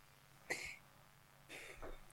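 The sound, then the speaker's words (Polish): Someone blows their nose twice: a short, sharp honking burst of breathy air, a pause, then a longer, rougher second blow. No one speaks. “Najpierw wydmucham nos już odpowiadam.”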